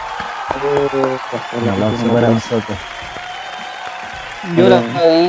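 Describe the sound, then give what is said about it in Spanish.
Steady clapping runs through the whole stretch as a noisy wash, with several voices calling out and cheering over it in short bursts, loudest toward the end. “Un aplauso”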